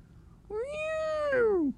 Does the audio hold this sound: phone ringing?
no